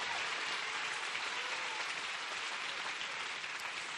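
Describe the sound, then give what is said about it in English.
An audience claps hands steadily for the full four seconds, many overlapping claps blending into a dense, even wash of applause with no pauses and no voices on top. “Clap your hands like you believe the Word of God works.”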